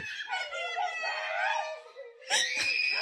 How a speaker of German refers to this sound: Oh Gott, mach die schreienden Kinder aus, das ist ja schrecklich. da ist wirklich die Hölle los. Das ist ja schrecklich.